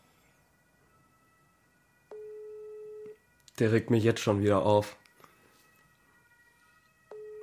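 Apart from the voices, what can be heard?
phone ringing tone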